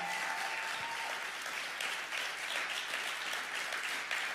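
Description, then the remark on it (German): A church crowd in Hamburg applauds its pastors and team steadily for several seconds, a dense, even wash of clapping that stays at a constant level throughout, with no voices standing out. “Können wir mal euren Pastoren, euren Team einen riesen Applaus geben?”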